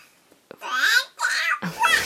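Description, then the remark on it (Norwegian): A baby babbles and giggles in a few bright, high-pitched bursts, fairly loud, with short pauses between the cooing vocalizations. “Hvis du hører meg i den babyskrevlinga og er jo helt klar for dagen, som du hører”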